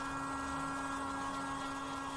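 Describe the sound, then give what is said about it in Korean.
A hair dryer runs steadily as someone dries their hair in an art club room in a student union building: a continuous whirring motor hum with a rushing airflow hiss, fairly quiet and unchanging throughout, with no voices. “이내 드라이기 소리가 들리기 시작했다. 분명 머리를 말리는 소리였다.”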